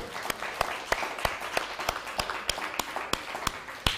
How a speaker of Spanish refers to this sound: Un fuerte aplauso.